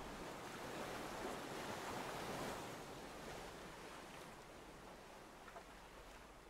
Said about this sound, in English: The fizz from each soft wave soothes your mind down further.